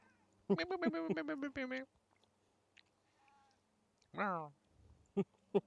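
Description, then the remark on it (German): A cat meows in a garden, first a long wavering, chattering call from about half a second to two seconds, then a shorter descending meow near four seconds, with faint soft clicks between. “Ich habe gerade einen Katz gehört.”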